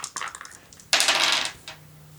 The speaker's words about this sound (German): Dann würfel doch nochmal zwei w 10 plus 85.